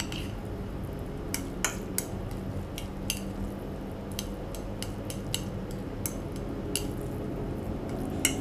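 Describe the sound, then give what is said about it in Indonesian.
A utensil stirs noodles in a pot, giving soft scraping and scattered metallic clinks at an irregular rhythm over a steady low background rumble, with no talking. “kita aduk dulu ya uh baunya sampai ke situ gak”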